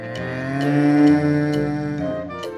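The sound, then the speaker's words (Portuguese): A cow lets out one long, drawn-out moo that holds steady for a couple of seconds, loud, with faint regular clicks ticking in the background. “qual será o destino e o fim da vaca amarela?”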